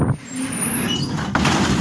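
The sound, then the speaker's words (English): A recreated car rear-end crash: a steady engine-like rumble runs throughout, then a sudden jolt of impact noise hits near the end and the loud, rough clatter continues. “what he would like me to do is recreate the terror that I went through uh, as some prick just smashed into the back of me.”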